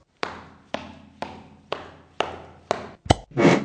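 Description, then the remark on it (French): Six heavy, evenly paced footsteps thud closer, each a little louder, then a sharp click and a short rushing burst as a fridge door is pulled open. “Bruit de pas qui se rapproche, on ouvre la porte du frigo.”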